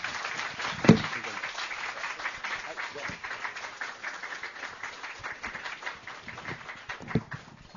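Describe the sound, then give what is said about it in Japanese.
An audience applauds a guest teacher at the host's request, steadily and fairly loudly for several seconds, a dense wash of many hands clapping with a couple of sharper, louder claps standing out. “えー、それでは盛大な拍手をどうぞ。”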